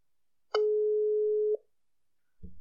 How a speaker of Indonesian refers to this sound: Jadi nggak lama aja, nggak lama-lama maksudnya, langsung aja kita telepon siapakah dia